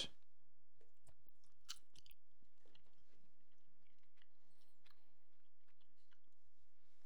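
Quiet chewing of Red Vines candy corn, a chewy candy, being tasted: soft irregular smacks and crunchy clicks repeating for several seconds, with no one talking.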